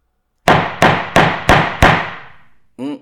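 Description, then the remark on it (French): A small gong, marking the move to the spoiler section of a film discussion, struck five times in quick, even succession, each hit bright and ringing, the last one fading out slowly before a brief tonal sound cuts in at the end. “Je vous propose, du coup, si vous n'avez pas plus à rajouter dans cette partie sans spoil, qu'on passe directement euh, avec le petit gong et qu'on passe à la partie avec spoil.”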